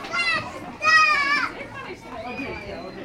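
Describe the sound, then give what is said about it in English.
Children run, shriek and squeal at play, with high, harmonic screams in two loud bursts followed by softer rising cries and a busy background of young voices. “But the world these children are running and screaming through is so different to how it was for children only a generation ago.”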